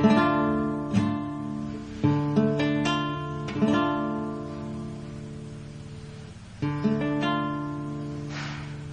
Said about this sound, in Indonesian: lalu ke D minor D minor senar satu kolom satu senar dua kolom tiga Senar satu itu menggunakan jari telunjuk. Senar dua menggunakan jari manis. Kolom tiga. Dan senar tiga. Kolom dua menggunakan jari tengah. Suaranya seperti ini.